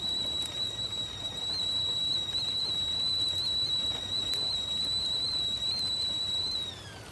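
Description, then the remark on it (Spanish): An old kettle whistles on a gas stove as water is heated for tea, a steady high-pitched tone held for several seconds over a low hiss before dropping off at the end. “Como de costumbre, el joven tomó una vieja tetera y encendió la estufa de gas para calentar el agua.”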